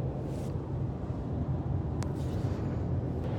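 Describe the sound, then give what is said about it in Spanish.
A steady, low rumble of road and engine noise fills the cabin of a self-driving car moving at increased speed, broad and constant, with no one speaking. “Ya estoy de vuelta y seguramente escuchéis un poquito más de ruido porque he aumentado la velocidad.”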